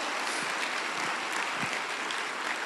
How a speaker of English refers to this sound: Hallelujah. Amen. Let's clap unto the Lord for the word. Hallelujah.